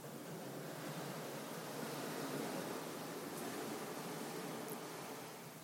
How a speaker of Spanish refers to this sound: Y me despido con esta emoción, con esta sensación, con este sonido del mar